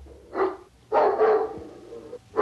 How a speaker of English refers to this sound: A dog was barking, real mean, in apartment nine.